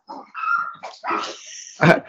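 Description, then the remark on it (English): Dogs bark several times in quick, uneven succession, some calls high and whining like yips, ending with one loud, sharp bark; no one speaks. “my wife is getting the dogs for me.”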